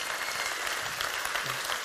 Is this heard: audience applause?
yes